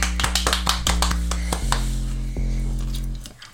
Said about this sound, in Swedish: Applåder.